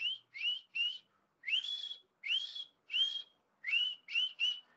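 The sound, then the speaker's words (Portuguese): A whistle blows nine clear, shrill blasts as an SOS distress signal in Morse code: three short toots, three longer ones, then three short again, loud with no talking. “Enfim, é, e tem alguns códigos também né, de, de SOS. A gente usa três curtos, três longos e três curtos, que seria assim, ó.”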